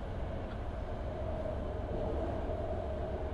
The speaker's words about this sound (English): This is literally the sound of the San Francisco BART. It's very loud.